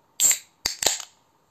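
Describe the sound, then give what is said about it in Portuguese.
A can of Perlenbacher Premium beer being cracked open: a short airy hiss, then a sharp metallic pop followed by a second snap and a brief fizz, all clear with no talking. “Ó o barulhinho pra vocês falarem que eu tô mentindo, ó.”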